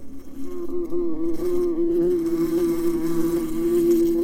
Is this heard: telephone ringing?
no